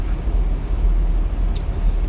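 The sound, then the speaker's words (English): A steady, dense low rumble of passing vehicles fills the scene, a continuous wash of road noise with no gaps and no voices. “Why is there so much traffic?”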